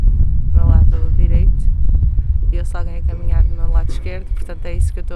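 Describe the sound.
A steady, low wind rumble blusters throughout, loud, with voices talking over it and some higher tonal sounds drifting in and out.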